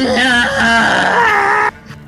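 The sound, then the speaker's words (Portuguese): A voice imitates a character's angry scream of rage: one sustained, strained, high-pitched yell lasting under two seconds, loud and harmonically rich with a slight wavering pitch, then cutting off abruptly into quiet. “Esse é o grito dele de raiva.”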